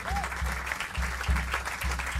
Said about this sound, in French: Et avant toute chose, j'aimerais remercier, s'il vous plaît, un tonnerre d'applaudissements pour Valérian Langlais au son ce soir, qui nous fait un son de dingue.